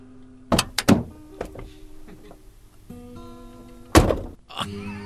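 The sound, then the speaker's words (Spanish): A car door is shut with a solid thunk as someone gets out of the car, preceded by a couple of quick clunks, over a steady engine hum; another heavy thud lands a few seconds later, fairly loud. “Tenía que cerrar la puerta, si no se metía el polvo.”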